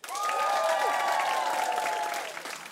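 A late-night TV studio audience, voting by making noise, erupts in loud cheering and applause, with sustained whoops and shouts over dense clapping that holds steady for a couple of seconds before easing slightly at the end.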